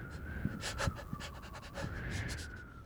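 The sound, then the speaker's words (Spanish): Quick, shaky breaths drawn in and out, like someone shivering and panting from the cold, repeating in an uneven rhythm for a few seconds with no talking. “Imagino que un escalofrío, ¿no?”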